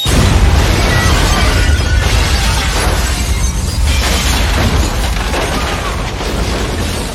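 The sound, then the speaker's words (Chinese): In a film scene, a bomb hidden in champagne explodes with a loud, heavy low boom that rolls on into sustained rumbling and crackling debris, staying dense and powerful for several seconds before slowly easing off. “杀手通知下面送香槟上来，大爷们渴了，于是永强照办，只不过香槟里藏着炸弹。”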